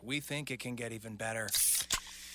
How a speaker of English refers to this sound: Oh, yeah, that's the sound of a freshly opened fizz filled Pepsi.